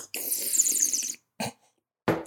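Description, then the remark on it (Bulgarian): A loud, wet slurp of a drink, lasting about a second, followed by two short, abrupt noises after brief pauses. “Ще почваме да продаваме звукови ефекти в подкаста. Да. Сърбане.”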